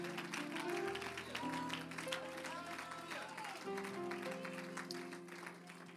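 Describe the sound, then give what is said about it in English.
A church audience claps along in worship in a steady rhythm over sustained organ or keyboard chords, the clapping dense and moderately loud throughout, with a murmur of voices underneath. “Clap your hands and worship tonight if you believe that God's going to move in here.”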